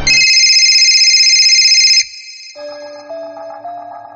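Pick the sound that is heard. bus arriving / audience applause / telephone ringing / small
telephone ringing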